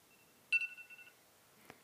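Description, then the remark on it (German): An alarm clock gives a single bright electronic beep lasting about half a second, clear, followed by a faint click. No one speaks. “oh, ein Wecker.”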